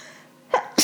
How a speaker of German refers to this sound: jetzt muss ich gleich niesen. Gesundheit.